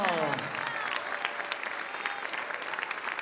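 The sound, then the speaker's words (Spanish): An audience applauds for Jesus in a dense, sustained wash of clapping that stays steady and loud throughout, with a faint voice fading out at the very start. “Fuerte para Jesús ese aplauso.”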